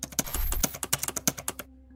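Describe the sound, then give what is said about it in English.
Rapid keystrokes clatter on a computer keyboard as someone types code, a quick uneven burst of about a dozen crisp clicks that stops abruptly, leaving a faint hum. “I started typing a code”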